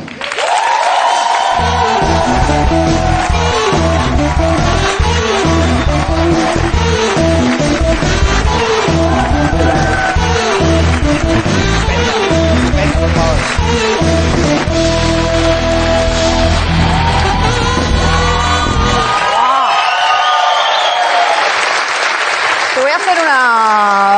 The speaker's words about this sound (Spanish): Así que reciban con un fuerte aplauso a la gurú de la, televisión, Mariola Cubells.